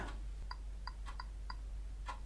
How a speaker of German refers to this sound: Man hört es auch ganz leise ticken.